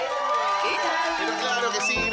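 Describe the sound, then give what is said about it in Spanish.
Recorded applause from a crowd, a dense, steady wash of clapping mixed with cheering and shouting voices, loud and continuous for the whole stretch. “Gracias por estos aplausos que nos levantan el ánimo, aunque son grabados.”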